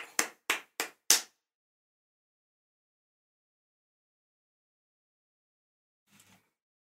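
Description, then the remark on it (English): A short burst of applause: four loud, sharp claps in a quick, even rhythm, then a long silence broken only by a faint, brief rustle near the end. “Let's have a round of applause for Neil and Harmony finally, finally hooking up.”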